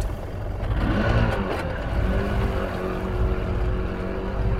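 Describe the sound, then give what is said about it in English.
Fishermen start the engine of their boat; it runs steadily with a deep, continuous rumble and harmonic drone, its pitch rising slightly as it revs, loud with no voices. “When it was a couple hundred yards away, they started the engine of their boat.”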